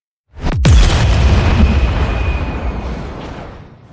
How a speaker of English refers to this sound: I'll layer in like the sound of a screeching as an explosion goes off